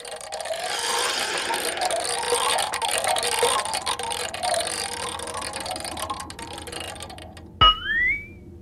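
A spinning wheel's ratchet clatters in a rapid, continuous stream of clicks for about seven seconds, then stops with a sharp knock followed by a short rising whistle-like tone. No one speaks.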